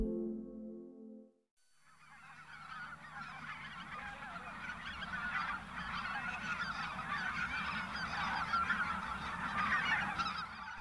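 A large flock of greater white-fronted geese honking continuously, dense overlapping calls swelling steadily louder, after a brief tonal intro and a moment of silence.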